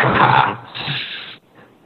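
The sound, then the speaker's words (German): A dog barks twice in the background, two rough, fairly loud bursts in quick succession, with a quieter trailing sound after. “außer dass mein Hund gerade im Hintergrund bellt.”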